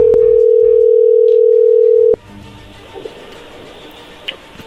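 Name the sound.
telephone call being dialed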